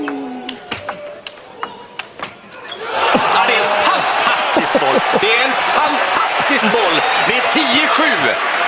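A table tennis rally at the European Championships in Malmö, about eight crisp clicks of balls bouncing on the table in quick rhythm, then a full arena crowd erupts into loud, sustained cheering and shouting, with gym shoes squeaking against the floor.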